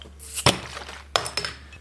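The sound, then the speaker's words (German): Beer glasses clinking together in a New Year's toast, a sharp clink followed by a few more bright knocks and rattles of glass, with no talking. “Prost äh, auf ein neues Jahr.”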